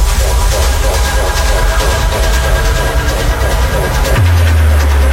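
An electronic dance music track plays loudly and steadily, with a thick, booming bass line under dense, bright synth layers; the bass shifts to a lower sustained note near the end.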